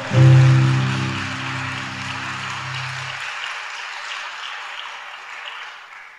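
A church audience applauds the Lord Jesus steadily for about six seconds, a dense crackle of many clapping hands, with a low sustained musical tone fading out in the first three seconds; the clapping thins slightly toward the end.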